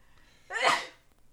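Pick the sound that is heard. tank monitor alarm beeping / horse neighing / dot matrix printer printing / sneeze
sneeze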